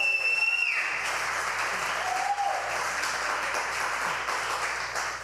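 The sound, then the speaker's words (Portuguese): An audience breaks into sustained applause for the Lord Jesus, a dense wash of many hands clapping steadily and loudly for several seconds, with a faint tone fading out at the start. “Pode dar uma salva de palmas ao Senhor Jesus.”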